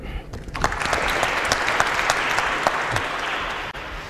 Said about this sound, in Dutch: Nog een hartelijk applaus voor James Kennedy.